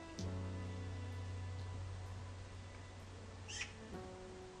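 Faint birdsong from outside, with a couple of brief, scattered chirps over a low, steady background hum. Nobody speaks, and the scene stays calm and quiet.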